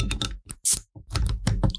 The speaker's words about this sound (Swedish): Och då är det helt enkelt San Miguel som det bjuds på. Och då, då ska jag, den här är ju då på flaska så den ska jag öppna